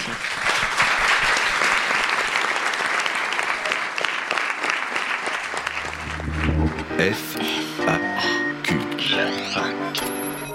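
An audience bursts into loud, sustained applause, a dense crackle of many hands clapping, which gives way after about six seconds to a bright, tonal musical jingle.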